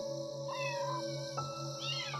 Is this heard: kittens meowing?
yes